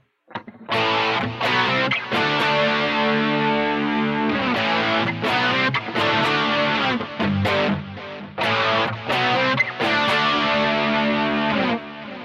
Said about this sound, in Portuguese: Esse riff simples, objetivo, com o som certo, com o timbre certo, é, arrasa quarteirão, cara.